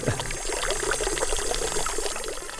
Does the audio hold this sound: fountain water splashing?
yes